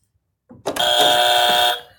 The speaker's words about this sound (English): If it's hot, this, you can tell us why. If it's not, you get to use our annoying morning buzzer.